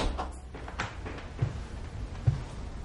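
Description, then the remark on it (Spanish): A man closes a door quietly, with a couple of soft, low thumps over faint rustling handling noise and no voices. “El hombre que visitó a Salachenko en el hospital cierra la puerta.”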